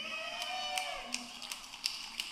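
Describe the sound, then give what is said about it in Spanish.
A handful of faint, scattered hand claps, about six sharp soft slaps at a slow, slightly uneven pace over a low background hum. “Le está dando brega aplaudir.”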